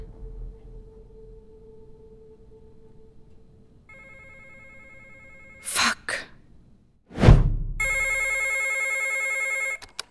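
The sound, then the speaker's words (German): A telephone rings, faint at first and then loud with a bright electronic trill near the end, after a sudden sharp exclamation from a voice. “nimmst nicht mehr ab.”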